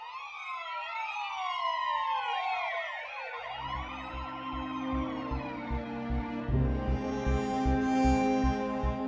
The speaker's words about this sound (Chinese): 六零四号被警笛声惊醒的时候，发现丈夫又不见了。楼下一辆警车闪烁着警灯停在那里，警察、公寓保安和十来个居民围在那里。